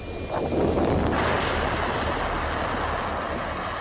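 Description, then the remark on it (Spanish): A sonified recording of Jupiter's magnetosphere boundary: a dense, steady electrical hum and hiss that swells slightly in the first second, then drones on evenly, with no voices. “Es invisible, pero su sonido es como el de un poste eléctrico.”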